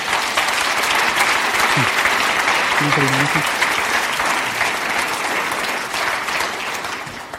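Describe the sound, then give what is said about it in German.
Steady applause from an audience fills the whole stretch, dense and even clapping at a fairly loud level, with a few brief voices calling out faintly underneath. “Gebt doch einen Applaus”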